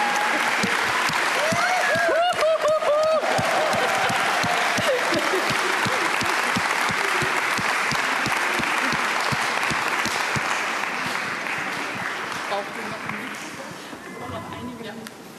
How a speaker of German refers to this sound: Klatsch mal für sie, das sind unsere Glaubenshelden, die seit Anfang dabei waren.